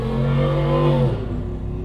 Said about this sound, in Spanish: Gracias a la persona que acaba de pasar con motocicleta. Eh, a mí totalmente no me da miedo el ruido.